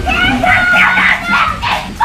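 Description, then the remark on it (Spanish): A child screams with excitement while opening a Nintendo 64 received as a Christmas present. The shrieks are loud, high-pitched and wavering, and run almost nonstop for about two seconds. “No, te pasó como a este niño, ¿no? Que abrió entre gritos la Nintendo.”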